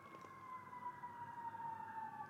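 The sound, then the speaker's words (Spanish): An emergency vehicle siren sounds outside, a steady high wail that slowly drifts lower in pitch, fairly faint and heard on its own without any voices. “Oye, ¿qué hiciste que está llegando la policía?”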